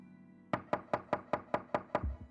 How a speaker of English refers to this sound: The knocking on the garage door jolted seven year old Clifford to attention.